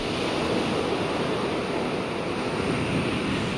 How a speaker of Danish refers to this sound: I modsætning til ASMR, så kan jeg sagtens selv godt finde på at sidde med lyden af havet i mine ører for at koncentrere mig, mens jeg arbejder